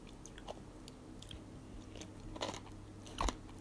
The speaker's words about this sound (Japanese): 時々こんな風に食べながら動画じゃない、食べながらラジオもやっております。